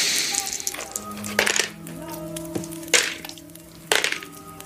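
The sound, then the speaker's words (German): Several dice clatter onto a hard table in quick, separate bursts, sharp clicks with a bright ringing tone between them, fairly loud, with no voices, as everyone rolls dice for mental stability. “Ihr dürft bitte alle mal auf geistige Stabilität würfeln.”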